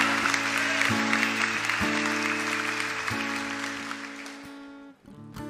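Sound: audience applauding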